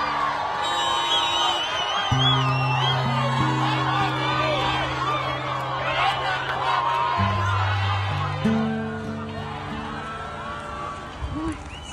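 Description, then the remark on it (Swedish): A large outdoor crowd, gathered to watch a hostage exchange, waves and cheers, whooping and shouting continuously as a bus carrying hostages returns, a dense roar of many voices with scattered high yells, while a low sustained engine drone hums underneath. “När en buss med gisslan återvänder vinkar och jublar folket som har samlats för att se utväxlingen.”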